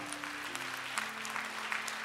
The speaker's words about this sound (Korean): 응답하신 하나님께 큰 박수로 영광을 올려드리겠습니다. 할렐루야.